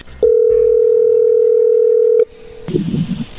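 A loud, steady telephone dial tone holds for about two seconds as a phone call is being placed, then cuts off and gives way to faint background noise and murmuring voices.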